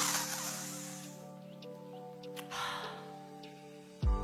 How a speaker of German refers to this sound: Und dann atmen wir die ganze positive Energie wieder in.